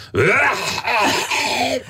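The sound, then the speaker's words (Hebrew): A man vocally imitates the harsh coughing and hawking of a passenger on a train in China, a loud, strained, groaning throat rasp that rises and falls continuously for about two seconds, with no other talk. “לא, שיעול מטורף.”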